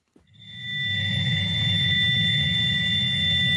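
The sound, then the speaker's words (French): A steady, high-pitched electronic whistle of two sustained tones holds unbroken over a low, rumbling hiss, swelling in quickly and then staying constant, with no voices. A signal captured by a University of Ohio radio telescope on 15 August 1977, lasting 72 seconds and 30 times stronger than the background noise of the universe. “Nous sommes le 15 août 1977 lorsqu'un radiotélescope de l'Université de l'Ohio capte précisément ça.”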